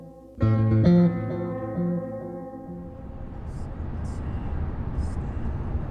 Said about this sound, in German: Ich sitze im Auto von meinem Freund und Trainingspartner